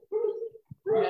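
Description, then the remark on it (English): Dogs bark and yowl at each other in a shouting match, two sustained, tonal outbursts separated by a brief pause with a soft thump, loud and with no talking over them. “You're gonna have to excuse the dogs that are getting into a, a shouting match behind me. You can hear that.”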